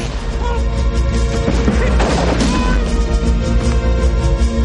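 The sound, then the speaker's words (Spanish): Loud, booming gunfire as British soldiers fire from a fort, with heavy crashing blasts over a dense, continuous roar, one especially strong burst near the middle, and no voices. “Los británicos disparan desde el fuerte.”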